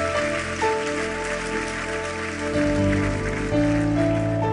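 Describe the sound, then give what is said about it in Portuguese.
A church audience applauds God in a steady, dense patter of clapping, while sustained keyboard or organ chords play underneath and shift to new harmonies a few times. “Aplauda Ele, que Ele nos abençoe com a Sua palavra e nos livre da dor, da culpa”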